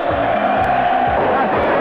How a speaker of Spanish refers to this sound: Ahí está el grito de la gente de Talleres.